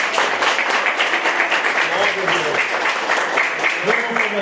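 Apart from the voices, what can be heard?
audience applauding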